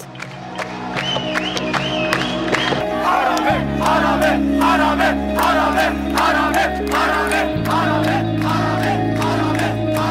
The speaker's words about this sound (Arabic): أول ميكس حقيقي سجلته ب 2015 كان معي مكنة تسجيل صوت بمظاهرات بيروت سجلت أصوات المتظاهرين وصريخهم